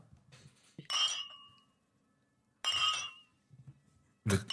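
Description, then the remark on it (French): Two drinking glasses clink together three times, each a sharp, bright ring that lingers briefly, over a faint low background murmur. “Euh, j'ai vraiment très envie de prendre les deux verres qui ah sont sur.”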